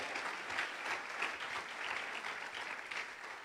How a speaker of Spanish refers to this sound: Que alguien aplauda al Señor.